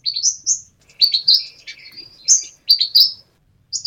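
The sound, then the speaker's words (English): A brown gerygone, also called the brown warbler, calls in quick, high, chattering phrases, a series of bright tweeting notes in short bursts with brief pauses, clear against a quiet background. “Gorgeous Brown Gerygone is Wildlife in Focus”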